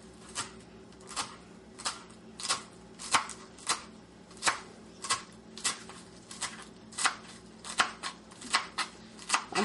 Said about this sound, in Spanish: Bueno, vamos a picarlo lo más finito que se pueda. Yo para picar el cilantro empiezo desde donde están las ramitas, no de las hojas, por acá atrás.